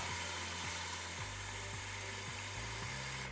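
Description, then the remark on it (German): Water gushes steadily into a cleaning bucket being filled for mopping the floor, roughly 2-3 liters, a constant loud hiss and splash with a low hollow tone that keeps stepping upward in pitch as the bucket fills. No one speaks. “Und dafür lasse ich mal meinen Putzeimer volllaufen.”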